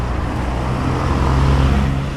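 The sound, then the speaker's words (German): Dense rush-hour road traffic on Limuru Road in Nairobi, Kenya, rumbles steadily, with cars and minibuses idling and moving, a constant low engine drone filling the scene without pause. “Berufsverkehr auf der Limuru Road in Nairobi. Zwischen den Autos und Minibussen”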